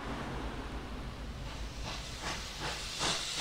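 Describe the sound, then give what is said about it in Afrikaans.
A steam train hisses steadily, with a run of rhythmic puffs of steam building in the second half as it pulls in. Moderately loud, with no voices. “Die heel eerste ding wat hy opmerk toe hy van die trein afklim, is hoe stil die omgewing is.”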